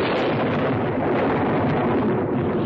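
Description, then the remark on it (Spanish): Loud, sustained thunder rolls and rumbles through the whole stretch, a dense, steady roar of a strong storm covering the sky with grey clouds, with no distinct breaks and no voices. “Una fuerte tormenta hace que el cielo se encapote de nubes grises.”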